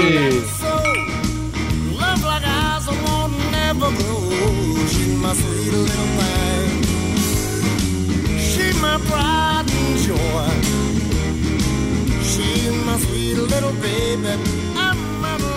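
A loud, steady blues rock track with bending electric guitar lines over a driving bass and drum groove, playing continuously without any voices.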